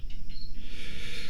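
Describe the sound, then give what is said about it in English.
Four pet budgerigars (parakeets) named Miguel, Everett, Sundance and Butch Cassidy chirp in the background, a steady run of quick, high-pitched twittering notes that keeps going without pause. No one talks over it. “And so we've got four parakeets here budgies, they're called. You can hear them in the background there.”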